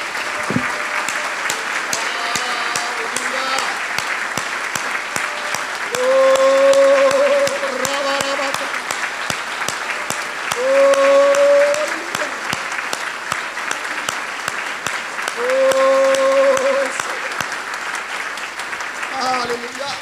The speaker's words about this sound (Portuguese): Tu queres dar uma salva de palmas de todo o coração a esse Rei dos Reis, Senhor dos Senhores, em nome de Jesus?